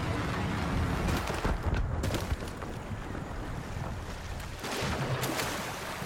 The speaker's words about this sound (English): And you can hear the water. The water sounds really cool in the game too.